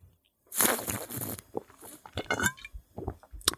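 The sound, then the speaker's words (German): A noisy, hissing slurp from a drink lasting about a second, followed by a string of small wet clicks and gulping swallow sounds. No one speaks. “So, erstmal mein Schluck.”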